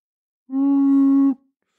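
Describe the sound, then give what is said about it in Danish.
A person lets out one short, steady howl lasting under a second, held at a fairly even pitch, fairly loud, with silence around it. “her kommer en lille bitte dagsyl fra småt op”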